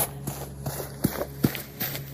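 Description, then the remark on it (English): Heavy footsteps stomp and rush up the side of a bed in a quick, steady rhythm, about five thudding impacts a little under half a second apart, over a low background hum with no one speaking. “I started to worry for all of us at this point, and then I heard the footsteps I'd been listening to suddenly stomp and rush up the side of the bed.”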